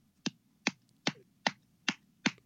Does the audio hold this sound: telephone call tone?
no